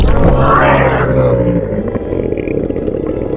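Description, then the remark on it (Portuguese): A single loud, monstrous roar from a creature with long arms, insect-like legs, a large torso and its head sunk into its chest, with deep harmonic bellowing that swells in the first second and then decays into a rough, rumbling growl. No one speaks over it. “Ele dá aquele, aquele, aquele berro monstruoso, assim.”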